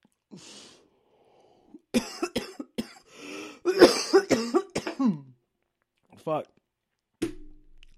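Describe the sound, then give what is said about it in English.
A burst of harsh coughing fits repeats in quick succession, broken by short raspy breaths, with a few more scattered coughs trailing off after brief pauses. “I just coughed and farted at the same time.”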